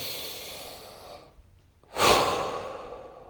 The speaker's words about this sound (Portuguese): Aí você pode falar, respira, respira Respira. Aí você começa a respirar mais.